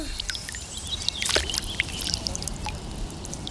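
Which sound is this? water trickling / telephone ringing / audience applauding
water trickling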